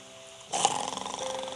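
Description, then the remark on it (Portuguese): A loud, rasping snore of a wolf sleeping under a tree breaks in abruptly after a brief quiet moment and rumbles on steadily to the end, prominent with no talking. “Ele roncava tanto que até os ramos da árvore Nossa.”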